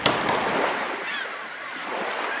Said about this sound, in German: Du bist am Strand. Die Wellen schwappen mit großer Kraft gegen den Strand. Hörst du sie?